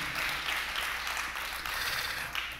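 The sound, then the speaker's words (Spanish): A church audience applauds the Lord for the life of its pastors, a dense, sustained wash of many hands clapping at a steady loudness with no talking over it. “Dar otro fuerte aplauso al Señor por la vida de tus pastores en esta tarde, amén.”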